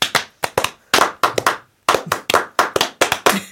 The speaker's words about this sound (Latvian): Otra skaņa būs plaukšķināšana.